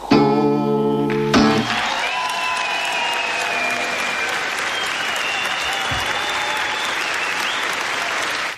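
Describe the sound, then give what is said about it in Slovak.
A song's last notes cut off into a large live audience's sustained applause at a singer-songwriter's concert in the 1980s: dense clapping that stays loud and steady throughout, with a few shrill whistles rising above it. “Takáto atmosféra bola v 80 rokoch na koncertoch pesničkára”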